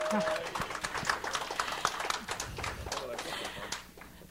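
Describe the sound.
A room full of people claps steadily for a few seconds, a dense patter of hand claps at moderate volume with some murmuring voices mixed in.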